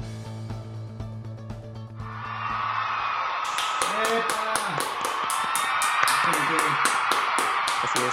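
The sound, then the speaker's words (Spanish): Dense, steady canned crowd applause, placed in the background to sound like a multitude, swells in after a brief musical ending and continues loudly as a broad wash of clapping, with a voice speaking faintly underneath. “para que sepan pues que por el formato por el que ahorita hemos optado, me veo obligado a colocar gente así en el fondo, aplaudiendo, como si tuviésemos una multitud.”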